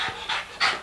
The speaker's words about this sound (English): or, uh, that, was, that was the dog panting. yeah. At least it's not licking.